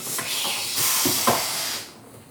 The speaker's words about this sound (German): der noch unsere Sitzkissen von unserem Büroschlauchboot aufpumpt.